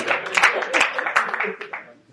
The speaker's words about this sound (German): Applaus war schon ein bisschen mager.